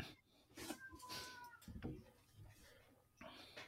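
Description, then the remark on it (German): Several cats, just brought home from the vet, meow in short, repeated calls, with some rustling and movement between them and brief bits of a voice in the background. “Ja, wo war ich stehen geblieben, bevor unsere Katzen nach Hause gekommen sind?”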